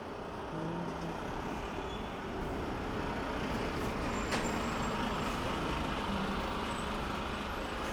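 A heavy truck passes, rumbling loudly for several seconds, a steady roar of engine and road noise with a brief sharp transient of air brakes partway through and no voices.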